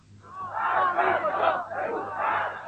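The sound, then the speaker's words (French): A large protest crowd in Iran on Black Friday shouts slogans in unison around 8:10 while facing an opposing formation, a dense roar of many voices rising in waves, loud and sustained with a brief dip in the middle before swelling again. “En place, les slogans sont lancés et c'est un, défi récit.”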